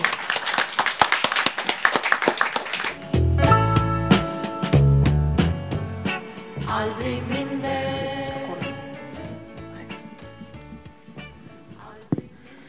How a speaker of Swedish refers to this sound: Så Eh, välkomna Nervösa Damteatern. Vill ni presentera er? Välkomna. En stor applåd.